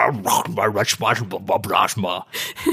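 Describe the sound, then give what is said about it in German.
A voice imitates a man's quick string of nonsense babbling and grunting noises, bursty and uneven, fairly loud, with no real words. “aber manchmal sagt er auch einfach gar nichts, sondern er brabbelt nur irgendwas und macht halt irgendwelche Geräusche.”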